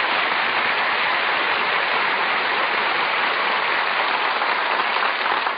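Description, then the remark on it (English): Steady, dense applause from the waiters in a restaurant, many hands clapping in a continuous even wash of sound that holds at the same loud level throughout, with no voices. “Who's applauding you? The waiters.”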